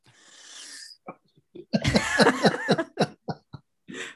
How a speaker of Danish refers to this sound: Det var bare, øh, du, øh, det, der sneser bare et gab ind. Sådan er det, når man sidder på skolebænken.